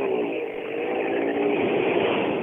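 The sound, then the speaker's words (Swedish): The engine of a white 940 race car from Storfors drones loudly and steadily with a raspy exhaust note, holding a near-constant pitch for the whole stretch, with no voices. “Det inte ett gynnande avgasljud ju du högre är kanske.”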